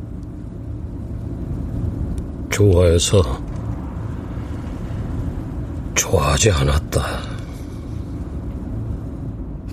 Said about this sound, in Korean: 침울한 목소리에 실린 좋아해서 좋아하지 않았다는 말에 묘하게 이끌리던 참에 자동차는 벚꽃이 환하게 핀 가로수길로 접어들었다.